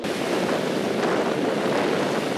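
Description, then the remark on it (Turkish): Rough surf on the stormy Aegean Sea crashes continuously while strong wind roars across the microphone, a dense, loud wash of water and gusting noise with no voices. “Mültecilerin Yunanistan'a geçmeye çalıştığı Ege Denizi fırtınalıydı.”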